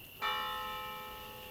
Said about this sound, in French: Qu'elles aillent prier puisque leur cloche sonne.